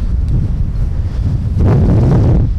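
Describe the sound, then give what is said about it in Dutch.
Loud, continuous wind rumble buffets the microphone, with heavy low-frequency thumps and a rougher gust surging in the second half; no voices are heard. “Jezus, wat een wind.”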